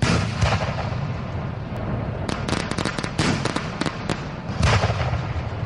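Firework mortar shots boom again and again in quick, irregular bursts, loud, over a constant roar of crackling and rumbling blasts with no one speaking. A mortar tube pointed the wrong way fires its shots directly into a crowd of people.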